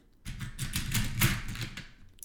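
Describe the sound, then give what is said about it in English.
A small plastic tackle box being opened to get starting resources: a quick run of sharp, crisp plastic clicks and light rattling for about two seconds, moderately loud, with no one talking. “Gotta open my little tackle box here.”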